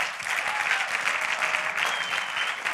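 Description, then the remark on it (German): Sustained audience applause welcoming a guest speaker, a dense steady crackle of many hands clapping at an even, fairly loud level throughout, with no clear speech over it. “Gebt ihm doch einen herzlichen Applaus.”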